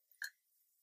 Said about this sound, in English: What's new? I can't stop burping. I'm sorry.